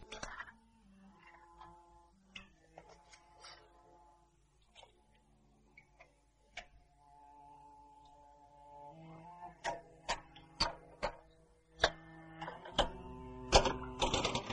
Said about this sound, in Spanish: Se sienta en una butaca e inserta papel en la máquina de escribir.